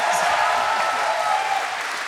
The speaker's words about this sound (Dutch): En nu mag het applaus iets luider, want een van de grondleggers en gigantische organisatoren van het festival,